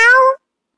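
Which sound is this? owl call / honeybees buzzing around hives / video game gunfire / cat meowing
cat meowing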